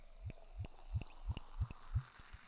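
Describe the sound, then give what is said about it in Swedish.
A drink glugs out of a small bottle in a steady series of about seven quick, hollow gulps, fairly quiet, with no voices over it. “jag, hällde upp.”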